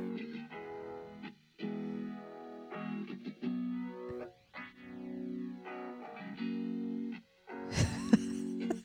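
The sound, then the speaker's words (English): An alternative rock song plays with distorted, effects-heavy guitar chords in bursts separated by brief pauses, ending with a louder, noisier crash of sound. No one speaks. “I mean, this song.”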